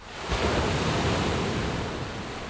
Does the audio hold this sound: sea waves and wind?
yes